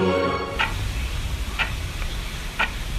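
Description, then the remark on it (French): A clock ticks steadily, with crisp clicks about once per second over a low background hum, preceded by a brief tonal sound fading out at the start. “C'est quoi ça? C'est l'heure, mettons.”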